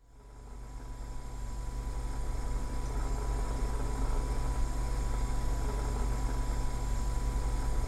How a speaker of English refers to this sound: The bathroom fan screamed a tired airplane sound that was entirely out of place for the lack of airflow it produced, but entirely consistent with the dismal nature of this motel.